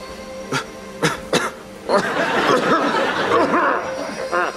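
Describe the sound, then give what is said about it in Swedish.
A man coughs: three sharp, separate coughs in quick succession, then a longer, rougher stretch of raspy coughing and throaty noise, fairly loud. “It's just a cough.”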